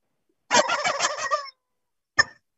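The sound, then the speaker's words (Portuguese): A turkey, the mascot Eusébia Matoso, gobbles loudly in a fast, rattling burst lasting about a second, falls silent, then lets out one short, sharp gobble. “oh, oh, hoje ela tá gritando, hein?”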